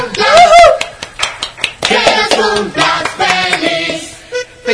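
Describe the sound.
Several people clap in quick, uneven bursts for about five seconds on a radio program, celebrating the host's 100th program; the sharp slaps are loud and steady while excited voices talk and call out over the applause.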